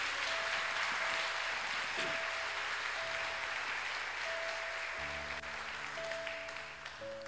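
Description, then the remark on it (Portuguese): An audience applauds the Lord Jesus Christ during an evening service, a dense wash of clapping that holds loud throughout while a sustained organ-like tone plays steady notes underneath. “Vamos aplaudi-lo nesta noite, irmãos.”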